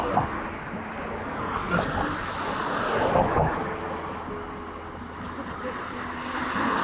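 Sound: street traffic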